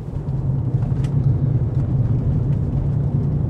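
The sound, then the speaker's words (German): A steady engine drone and low road rumble, like riding inside a moving car, as the car drives to the Cape of Good Hope in Africa, holding an even level throughout with no voices. “Praktischerweise kann man direkt mit dem Auto ranfahren.”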